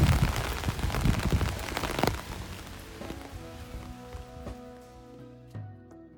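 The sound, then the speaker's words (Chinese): Heavy summer night rain, growing heavier, pours down in a dense, loud hiss with scattered sharp drops for about two seconds after a night visit to Zhihua Temple, then thins out as sustained, steady musical tones take over. “然后现在雨越下越大，我要赶紧去坐地铁回家了。”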